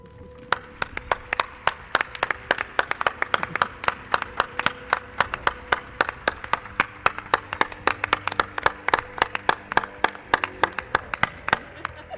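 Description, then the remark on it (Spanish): A live audience on the show Milenio 3 claps steadily for several seconds to welcome a guest, a dense run of sharp, closely spaced hand claps with no voices over them. “le da, le da cosa esto de los aplausos.”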